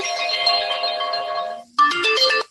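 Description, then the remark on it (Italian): A telephone rings for an incoming call with a bright, melodic electronic ringtone, a sustained tonal pattern, a brief pause, then a rising sequence of chiming notes, loud and without voices. “c'è qualcuno, ecco abbiamo anche la telefonata.”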